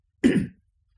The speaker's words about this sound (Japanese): ちょっと咳払いしてします。